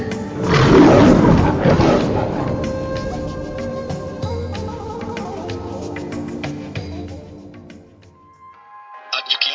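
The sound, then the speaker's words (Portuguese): A lion lets out one powerful roar that bursts in loudly near the start and fades into a long rumbling growl, ending with a few brief chiming tones, in a perfume advertisement. “Liberte o rugido em você.”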